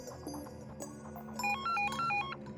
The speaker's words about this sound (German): Mitten in der Nacht klingelt das Telefon bei der Freiwilligen Feuerwehr in Mölln. Es ist 1.08 Uhr. Ein Anrufer sagt, in der Mühlenstraße brennt es.